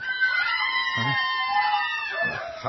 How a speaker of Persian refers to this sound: این صدای چیست فریاد زنان